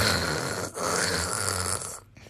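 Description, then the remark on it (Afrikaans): A voice imitates the static of a mistuned radio: a harsh, steady hissing crackle lasting about two seconds, broken by one short dip, then fading away. “Het jy al radio geluister en hy's heeltemal op die stasie ingestel nie. Dan maak hy maar so”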